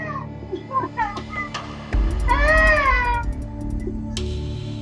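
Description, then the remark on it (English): An eerie, drawn-out wailing cry like a little child's, heard from above on an oil drilling rig, rising and falling in pitch for about a second, preceded by shorter whimpering cries, over a steady low rumble. “There was a voice crying, the voice of a little kid.”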